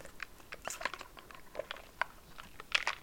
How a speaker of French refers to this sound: Donc, petite pause où est-ce que je prends une gorgée de mon café glacé.